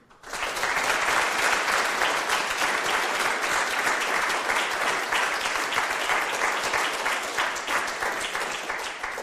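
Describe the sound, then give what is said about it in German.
Sustained audience applause in the Kardinal-Bengsch-Saal, a hall with a live audience at a radio broadcast, a dense, steady wash of many hands clapping that starts abruptly and holds at an even, loud level for several seconds, with no voices over it. “Ja, liebe Hörer, Sie merken schon an dem Beifall, dass heute etwas anders ist, dass wir heute nicht aus einem unserer Studios in Balderschwang oder München senden, sondern aus einem Saal mit Publikum.”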